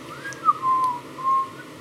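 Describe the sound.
Someone whistles a short tune in the background of a film's opening aerial camera shot over New York City, with no music: a few clear sustained notes with a brief sliding pitch between them, heard alone against a faint hiss with no talking.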